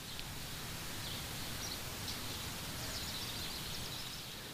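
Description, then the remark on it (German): Faint, scattered chirps from small birds landing near a pond and pecking for food along the shore rise now and then over a steady soft outdoor hiss and rustle. No one speaks. “Kleine Vögel landen zwitschernd in der Nähe des Teiches und picken am Ufer nach ihrem Futter.”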